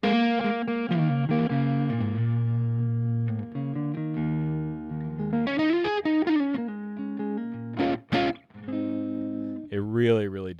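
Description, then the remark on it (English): Single-note electric guitar lines with sustained tones, pitch bends and a wavering vibrato near the end, played alone with a touch of room ambience spreading the sound wider. “Just that amount of uh, room sound is helping to widen the guitar's image.”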